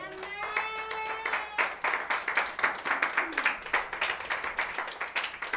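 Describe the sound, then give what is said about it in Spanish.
A church audience claps their hands as a clap offering to the Lord, in a dense, steady burst of many sharp slaps, rising quickly from a faint start with a brief tonal ring at the beginning, continuing loud and lively throughout. “la ofrenda de palmas al Señor.”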